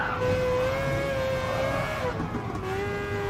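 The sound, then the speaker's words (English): A race car engine in a racing video game drones steadily and loudly, its pitch holding high before sagging slightly as it eases off, then settling lower. No one speaks over it. “I can't do racing games in this view.”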